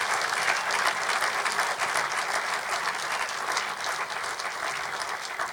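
An audience claps their hands in worship, praising God, a dense, steady wash of applause that holds at an even level for several seconds with no talking over it.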